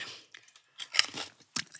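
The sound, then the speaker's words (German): Close, wet chewing with crunchy bites and soft squishy mouth sounds, coming in irregular bursts with a sharp crunch about midway and another near the end; no one speaks. “Ich esse deinen mal auf, ja.”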